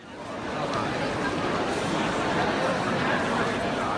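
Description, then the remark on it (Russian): A steady, dense murmur of many voices fills room 711 of the Louvre museum, where the Mona Lisa hangs, overlapping chatter with no single speaker standing out, holding at an even level throughout. “Это звук из 711 зала Лувра – где находится самая известная картина в мире и самая дорогая, судя по ее охране – «Мона Лиза» или «Джаконда».”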